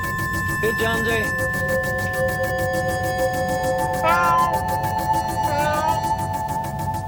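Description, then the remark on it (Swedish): A cat, Jonesy, meows three times, with rising-and-falling cries spaced a few seconds apart, over a steady electronic hum and low background rumble. “Here, kitty, kitty, kitty.”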